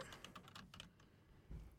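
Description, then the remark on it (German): Quick, uneven clicks of typing on a computer keyboard, a short burst of keystrokes, trailing off into a brief pause and a soft low thump at the end. “Gut, ich tue da einmal ähm, das nächste rein tippen.”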